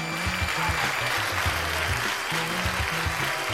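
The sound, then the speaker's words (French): Sustained applause from a crowd for a quiz contestant after a correct answer, dense and steady for several seconds, with a faint low musical tone running underneath. “je crois qu'on peut l'applaudir bien fort”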